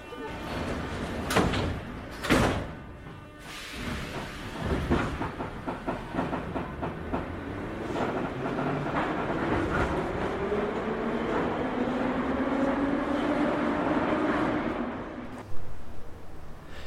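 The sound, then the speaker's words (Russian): Metro train doors bang shut with a few sharp knocks and a hiss, then the train pulls away, its electric motor whine rising steadily in pitch beneath rumbling wheels and rattling carriages. “Осторожно, двери закрываются.”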